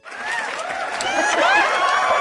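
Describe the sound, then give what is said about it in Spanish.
A burst of crowd applause for a young woman who is new on the program rises quickly and holds steady and fairly loud for a couple of seconds, with some voices and light laughter mixed into the clapping. “Vamos a ponerle aplausos a la señorita que es nueva en el programa.”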